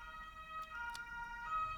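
An emergency vehicle siren wails briefly at a low level, a sustained high-pitched tone with no voices over it.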